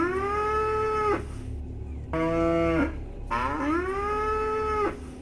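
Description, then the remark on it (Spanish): A cow lying on the ground and kicking moos three times, long and loud, each call a sustained low bellow with strong harmonics, separated by short pauses with a faint background rumble. “Encontré una vaca”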